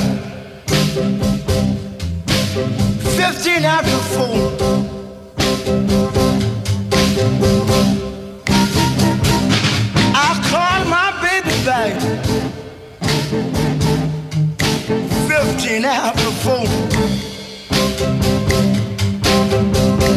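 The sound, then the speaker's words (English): A loud, full blues band recording plays steadily with a few brief breaks; the instruments sound out of tune with one another, as if playing in clashing keys, and a wavering lead line rises above. “Sound like they're all playing in different keys there for a minute.”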